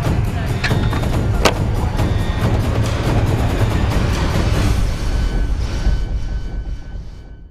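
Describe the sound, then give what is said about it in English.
A spaceship's faster-than-light drives spool up to jump to a planet for water, a loud, steady mechanical roar with a few sharp clicks early on, holding strong before tapering off at the end. No voices. “So we're going to spool up the FTL drives and jump to that planet and get us some water.”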